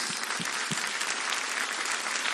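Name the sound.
audience applauding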